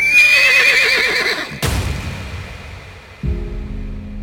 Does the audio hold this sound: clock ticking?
no